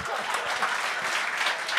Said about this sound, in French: Ah, ben on l'applaudit! Oui!